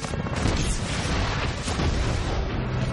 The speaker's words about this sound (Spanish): Los misiles impactan en el árbol. La onda expansiva de las explosiones lanza a los somaticaya por los aires.